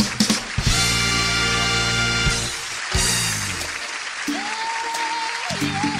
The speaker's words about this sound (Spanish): Gran, gran aplauso a esta gran estrella